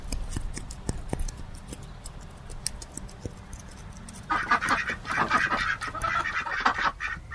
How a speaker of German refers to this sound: Oh, dort putzt sich gerade eine Ente.